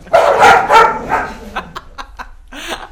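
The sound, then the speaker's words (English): Dogs bark loudly in a quick cluster, then a few short, sharp yips follow before one more bark near the end. “And the dogs like that one too. The dogs love that story.”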